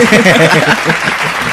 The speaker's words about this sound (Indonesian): ada backsound tepuk tangan ya. udah udah lo kasih belum? Nanti nanti. Enggak enggak, sekarang kasih ya. Masukin masukin backsound tepuk tangan. Nah, gini dong. Iya, Biar rame.